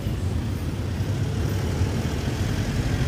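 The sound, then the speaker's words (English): Steady low rumble of street traffic with engine drone, a continuous, fairly loud wash of passing vehicles and no clear individual events or voices, on a busy Monday morning in the town of Paute. “A lot of traffic right now.”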